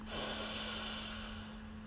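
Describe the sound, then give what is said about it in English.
A single deep breath drawn in through the mouth during a breathing exercise, a steady airy rush lasting well over a second, fairly quiet, with a faint low hum underneath and no talking. “So let's breathe in and out through your mouth.”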